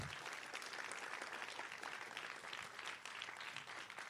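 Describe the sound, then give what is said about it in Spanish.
An audience applauding steadily for about four seconds, a dense, even patter of many clapping hands with no break and no voices over it. “Tres que vinieron aplaudieron.”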